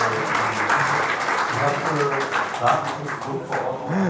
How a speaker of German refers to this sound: Wenn das nicht geil ist, auch mal schön Klatsch ab im Hintergrund. Perfekt. Da gibt es einen High Five mit einer kranken Frau.